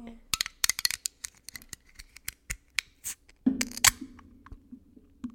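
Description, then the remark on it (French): An iced coffee package being opened: a quick series of sharp crinkles, snips and crackles, denser around the middle, with a low steady hum joining near the end. No one speaks. “OK, fait qu'on va l'ouvrir. Je pense qu'on va l'ouvrir une à deux hein, pour commencer. Et ça fait du bruit, fait que recule-toi un peu.”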